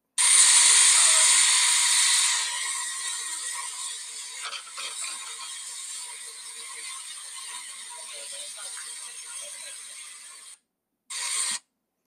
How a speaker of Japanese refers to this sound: ここでですね、えー、この「えー、鉄道の音とそれから車内の悲しげな音楽を聴いていただきたいと思います。それでは、えー、蒸気機関車の音を聞いてください。